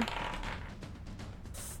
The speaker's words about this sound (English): Uh, so, roll this dice for you.